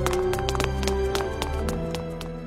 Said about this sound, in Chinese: 他突然转身跑了起来。寂静的巷子响起一阵雷雨般的脚步声，可那是两个人的脚步声。